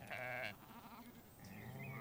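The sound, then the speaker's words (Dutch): A grazing sheep bleats, a wavering, nasal call with a strong first cry followed by a softer, drawn-out second bleat, heard on its own with no one talking. “De schapen kwamen al grazen dichterbij aftastend hun omgeving.”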